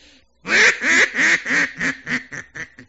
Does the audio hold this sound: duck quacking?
yes